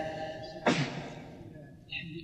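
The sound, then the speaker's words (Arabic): One sharp sneeze bursts out partway through, a loud, breathy explosion that quickly trails off, with a faint hum and murmur around it. “رحمك الله رحمك الله”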